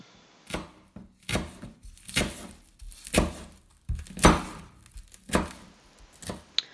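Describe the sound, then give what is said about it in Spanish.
A knife chops through a peeled arracacha root, cutting it in half on a cutting board while preparing a soup, with about nine sharp thunks in an uneven rhythm and no voices. “Mientras la olla empieza a hervir, puedes ir desgranando las alberjas, las habas y el frijol, limpiando las papas de año, los cubios, las chuguas o ibias o las rubas y pelando la racacha y partiéndola por la mitad.”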